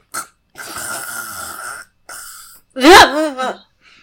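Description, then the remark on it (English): A person imitates snoring with two long, rasping breaths, ending in a loud, wavering voiced snort-groan. It's fairly loud, with brief pauses between. “You just hear snoring.”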